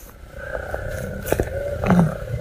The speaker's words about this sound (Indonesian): ya ampun motor berisik banget